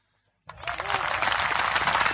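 Applause bursts in suddenly after a brief silence and continues steadily as a dense, crackling wash of clapping, fairly loud, holding at full strength to the end.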